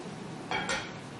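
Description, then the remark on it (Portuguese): Someone drinks water on a hot day in Ribeirão: two short, soft bursts of glass handling come in quick succession over a quiet, steady background, with no talking. “1 Coríntios, capítulo 6, enquanto eu bebo uma água aqui.”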